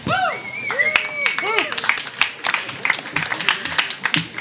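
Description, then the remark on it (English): A crowd applauds steadily as a performer is welcomed to the stage, dense rapid clapping running throughout, with excited whoops and cheers rising and falling over it in the first half. “ladies and gentlemen, let's hear it for her.”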